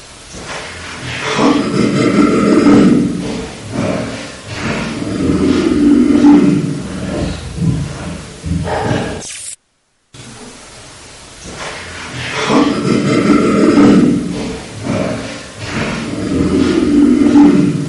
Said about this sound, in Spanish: y fue en la misma habitación donde se grabó prácticamente un año y medio antes la psicofonía que vamos a escuchar ahora, que es esa especie de risa siniestra.